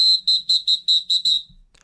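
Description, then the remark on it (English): A whistle sound effect: seven short, shrill, high-pitched blasts in a quick, steady rhythm, loud and alone, fading out at the end with no talking. “Uh, j- j- hold on, play the play the play the whistle again.”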